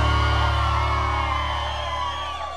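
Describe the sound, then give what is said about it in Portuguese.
A large crowd at a sertanejo music concert whoops, yells and shouts together in a sustained roar, loud at first and slowly easing off, with a low steady hum underneath. “Só quem gostou, solta o grito aí!”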